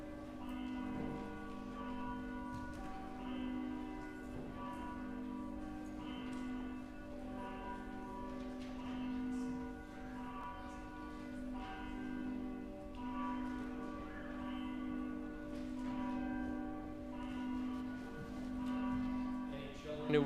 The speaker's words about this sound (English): The bells call us to worship.